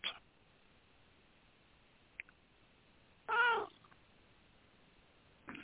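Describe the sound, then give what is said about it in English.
A male kitten gives a single clear, drawn-out meow near the middle, with a couple of short, softer cat sounds at the start and end against a quiet background. “He comes up and he starts yakking.”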